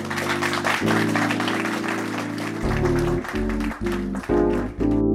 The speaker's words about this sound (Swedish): Kan vi ge honom en applåd?